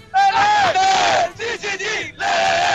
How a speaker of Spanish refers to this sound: ¿Podemos hacer un chichichi con los muchachos que están acá? A ver. Uno, dos, tres, ¡Chile! ¡CHI!